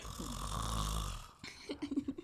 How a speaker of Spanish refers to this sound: Ajá estaba roncando.